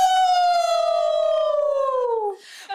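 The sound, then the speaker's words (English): People howl together to welcome Prem Rawati on the Wild Wise Woman Show: one long, loud, sustained howl that slides slowly downward in pitch for over two seconds, then breaks off into a short breathy burst. “enough howling.”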